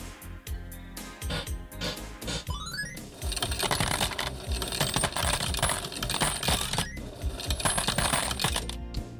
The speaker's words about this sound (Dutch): Hoorde je de muntjes vallen, Jan? Hoorde ze vallen, ja.